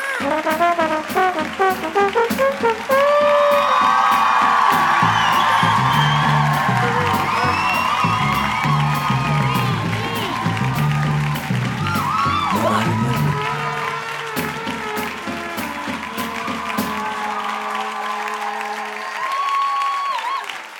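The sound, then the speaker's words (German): A live crowd claps and cheers loudly and continuously for about twenty seconds, with whoops and shouts rising above dense, sustained applause. “Ein komplett angemessener Applaus, würde ich sagen.”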